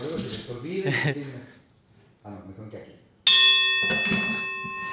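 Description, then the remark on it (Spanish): A boxing ring bell is struck once, loud, its bright metallic tone ringing on steadily while people talk before and over it. “Déjame, no vais, no vais a descontar, porque pues hay que tocar aquí la, campana.”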